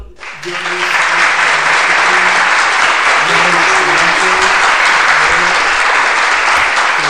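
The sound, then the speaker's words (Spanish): Sustained audience applause, a dense wash of clapping that swells in within the first second and stays loud and steady, with faint voices murmuring underneath. “bueno, aplausos, aplausos, ah, que hemos llegado.”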